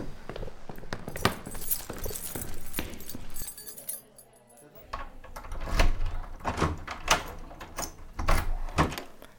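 Footsteps draw closer amid a run of sharp knocks and rattles as a police officer knocks, then after a brief lull a door is unlocked and opened with clattering handle and latch sounds.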